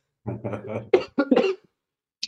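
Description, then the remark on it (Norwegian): A short fit of coughing: several rough, closely spaced coughs, fairly loud, then a brief pause with a faint click at the end. No talking. “Faen, jeg hoster da.”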